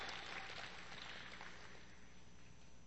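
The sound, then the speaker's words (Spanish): A crowd applauds in a dense, steady patter of clapping that holds for a few seconds, fairly soft, with no voices standing out. “Dele un aplauso fuerte porque me da coraje.”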